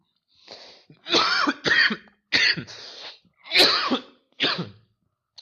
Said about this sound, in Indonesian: Anjir batuk banget. Gue nggak kena corona, tapi gue tuh kena uh, menurut dokter gue dia bilang disuruh ronsen terus keluar bronko pneumonia bronko pneumonia